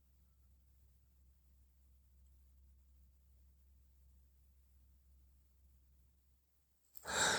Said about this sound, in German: Ja, und jetzt kommt ein Atemzug. Der kommt so ganz tief aus dem Bauch raus.